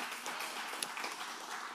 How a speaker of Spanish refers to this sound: Ay, si le puede dar otro aplauso al Señor por eso.